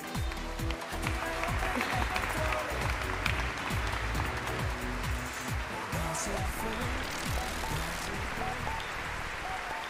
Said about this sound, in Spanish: Fuerte aplauso para uno de los jóvenes artistas y nuevos talentos de nuestra tierra.